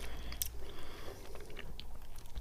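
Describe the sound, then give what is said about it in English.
Moist chewing of a soft, very chewy chocolate-coated jelly sweet, with steady squishy bites and small crunchy clicks repeating over a couple of seconds and no talking. “Chew, chew, chew. I'm trying to get rid of the chocolate taste so I can get to the centre.”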